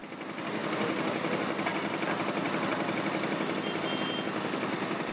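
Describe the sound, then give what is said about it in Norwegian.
Steady mechanical engine drone of excavators running continuously, with a rattling, grinding texture as excavators and people dig through rubble for survivors after an attack on an apartment block in Dnipro, Ukraine, in January; no voices, fairly loud throughout. “Det her det er lyden av gravemaskiner og mennesker som grav etter overlevende etter angrepet på ei boligblokk i Dnipro i januar.”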